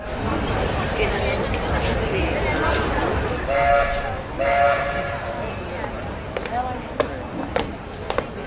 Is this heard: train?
yes